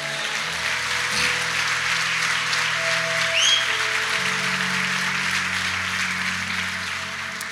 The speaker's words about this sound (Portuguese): Aleluia! Alguém pode dar um glória a Deus e aplaudir Jesus por isso?